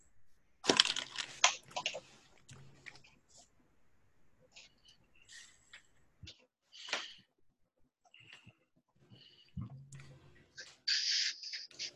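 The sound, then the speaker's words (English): Dice are thrown back into the center of a table, a loud rattling burst near the start, then scattered small clicks and taps, and a second shorter rattle toward the end. “So now we uh, take all of the dice we've picked and just throw them back into the center of the table.”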